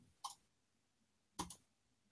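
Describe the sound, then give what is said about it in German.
A crisp computer mouse click, then about a second later a quick double click, with near silence between and no voices, as someone clicks on a person's name at random. “dann klicke ich hier willenlos jemanden an.”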